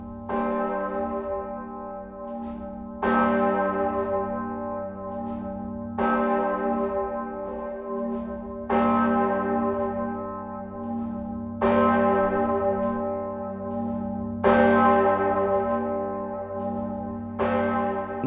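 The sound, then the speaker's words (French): A deep, heavy bourdon church bell tolls slowly and steadily, each strike blooming into a long, humming resonance that overlaps the next, about seven strokes in all with no voices. “Sans compter que le bourdon est aussi le nom d'une cloche”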